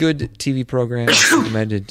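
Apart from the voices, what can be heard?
sneeze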